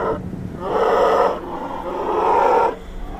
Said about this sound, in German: Was ihr da gerade hört, sind Eisbären.